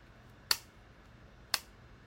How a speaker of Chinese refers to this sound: 对，几乎跟耳机壳一样的声音。我来这边跟大家示范一下耳机壳是什么声音。来，耳机壳呢是这样，